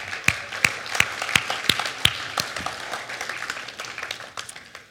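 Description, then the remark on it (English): Audience applause at the Bluff for everyone who has been part of a small group there: a crowd claps, with sharp, evenly spaced claps standing out at first, then melting into a steady, dense patter of many hands for several seconds. No one speaks. “So, anyone who has ever been a part of a small group here at the Bluff, we want to give you a round of applause right now.”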